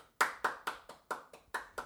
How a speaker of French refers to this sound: Et puis aujourd'hui, mesdames et messieurs, on a même un public en studio. Alors, public, applaudissements.